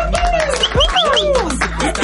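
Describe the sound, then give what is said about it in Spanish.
Applause from the audience present welcoming guests, a steady patter of claps mixed with rising and falling whistles and cheering voices from the crowd. “Un aplauso del público presente.”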